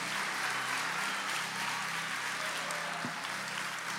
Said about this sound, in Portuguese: Se você recebe isso, por favor, celebre essa palavra com aplauso, celebre essa palavra com glória a Deus e diga: essa é a vida que eu quero para mim.